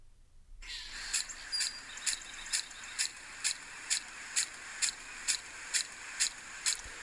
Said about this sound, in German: Das müsste der Rasensprenger sein. Absolut korrekt.